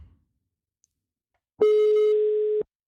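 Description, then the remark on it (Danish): A single steady electronic ringback tone of about one second, loud, sounding after a brief silence as an outgoing phone call to a resident of Bornholm waits to connect. “ringe lidt ud til nogle af beboerne her på”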